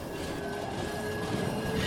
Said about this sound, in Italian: Lo sferragliere del tram accompagna i suoi pensieri.